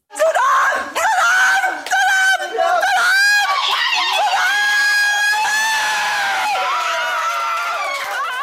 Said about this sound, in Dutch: Ja, na al dat aanmoedigen kwam natuurlijk de blijdschap bij de moeder van Hoogland.